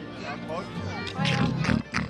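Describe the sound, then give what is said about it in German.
A child's voice imitates a pig, making a string of nasal oinks and snorting grunts, fairly loud, growing stronger toward the end. “Ich, das kleine Schweinchen, gehe am liebsten auf den Weihnachtsmarkt, um Zuckerwatte zu schlabbern.”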